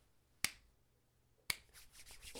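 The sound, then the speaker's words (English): A handshake performed as a Foley effect: two sharp, bright slaps about a second apart, followed by soft, continuous rubbing and rustling. No one speaks. “that was a good handshake.”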